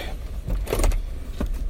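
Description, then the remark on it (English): Steady low engine and road rumble fills a car cabin during a morning drive to work, with a brief whirring, clunking burst partway through and another short knock near the end; no one speaks. “with another morning car edition. Driving to work.”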